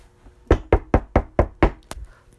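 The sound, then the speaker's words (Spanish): A rapid series of six firm, evenly spaced knocks on an office door, with Patrick Mahomes knocking, followed by one sharper tap, with no voices. “tocan la puerta, tocan la puerta y, digo, y decimos, ¿quién es?”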